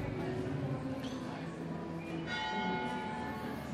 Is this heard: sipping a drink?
no